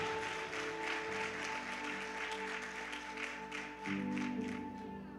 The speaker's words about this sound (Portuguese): Alguém dá um glória a Deus aí, por favor, e aplaude Jesus, meu irmão.